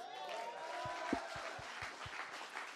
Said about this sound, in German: Und ich finde, sie haben einfach einen Applaus verdient, oder?